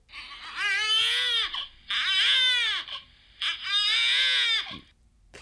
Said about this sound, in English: So that was a baby crying because I it's like helping a baby.